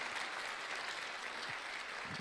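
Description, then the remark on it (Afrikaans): A church audience clapping hands for the Lord, a steady dense wash of many overlapping claps held at an even level throughout, with no voices rising above it. “Wie nie net vir die Here hande klap gee oor dit nie.”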